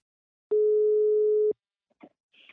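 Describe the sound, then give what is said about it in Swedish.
A single steady telephone ringing tone lasts about a second, loud and clear, followed by a faint click and a brief rustle as the line picks up, as a call is placed to a business partner's CEO. “Nu tar vi en kort paus och ringer upp min huvudsamarbetspartner Invacare och pratar med VD”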